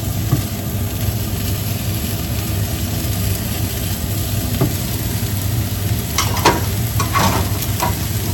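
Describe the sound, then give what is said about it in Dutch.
Steady sizzling of food frying in a pan, a dense crackling hiss that fills the whole clip, with a few brief scrapes or clinks near the end and no talking. “Ik, ga dit even, ik laat dit even bakken en dan, uh, dan is het goed zet de afzuiger aan.”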